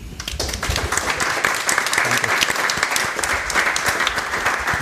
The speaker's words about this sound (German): Und ich glaube, die einen Applaus verdient.